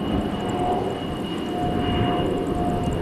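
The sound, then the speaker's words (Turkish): A jet-engine firefighting aircraft leased from Russia flies by on a test flight in Turkey, with Agriculture and Forestry Minister Bekir Pakdemirli in the cockpit: a loud, steady engine roar with a thin, sustained whine running underneath, continuous throughout with no voices. “Rusya'dan kiralanan jet motorlu yangın söndürme uçağı göreve başladı.”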